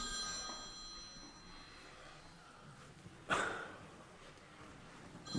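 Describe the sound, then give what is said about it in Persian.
A doctor's mobile phone rings steadily for a long time, its tonal ringtone sustained throughout, broken near the end by a brief burst of breathy noise like a snort or sigh. “در ضمن موبایلتون خیلی وقته که داره زنگ میخوره”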